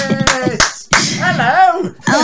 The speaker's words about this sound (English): I'll tell you what, there's there's a laugh and an applause I haven't heard for a while.